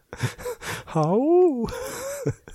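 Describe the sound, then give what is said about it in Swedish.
A voice lets out a drawn-out, high-pitched pained yelp on a high A that rises and falls, mimicking someone getting a fishing hook stuck in the buttocks, framed by short breathy vocal sounds before and after. “beroende på hur personen säger aj så kan man gissa vilken kroppsdel den sitter i”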